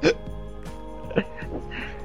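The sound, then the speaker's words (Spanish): Two short, sharp hiccups about a second apart, clear, with someone's voice continuing in between. “A mí ya me dio hipo, por eso hablo con pausas.”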